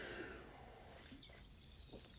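Someone takes quiet sips of water: a few brief wet slurps and swallows spread over two seconds, with no talking, just faint background hiss beneath.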